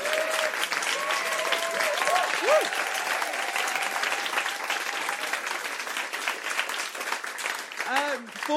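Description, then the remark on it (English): A room full of people applauds steadily and loudly for several seconds for the performers, writers and artists, dense clapping mixed with cheers and whoops, a few voices rising over the crowd. “Can we have another massive round of applause, please, for all our performers and writers and artists?”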